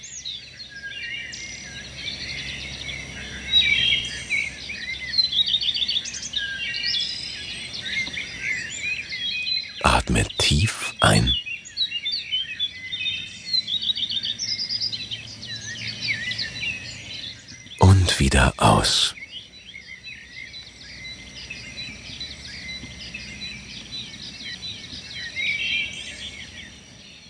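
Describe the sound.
A steady outdoor forest ambience of chirping insects and scattered birdsong fills the background throughout, while a calm voice speaks softly over it, with two brief louder bursts partway through.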